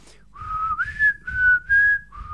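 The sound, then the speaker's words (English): A short whistled melody from the Hunger Games film score, a few sustained notes gliding smoothly from one to the next, whistled clearly over a faint low rumble, with no talking. “I felt that the Hunger Games you can't take anything off for it because you know it when you hear it.”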